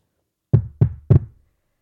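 Three firm knocks on a door, evenly spaced, loud with a deep wooden thud, followed by silence.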